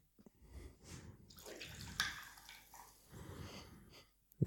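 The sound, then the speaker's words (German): Fizzy Goldberg tonic water, bottled in Paderborn, Germany, is poured from a mini bottle into a glass in a few soft, splashing bursts, quiet, with a brief sharp knock right at the end. “Du darfst dir auch wieder einschenken davon.”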